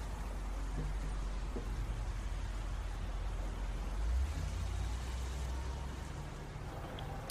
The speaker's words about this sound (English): Uh, busy traffic, people coming and going. Uh, you know, doing their morning work routes and stuff. But other than that, nothing stands out. Um, just the chaos of morning traffic.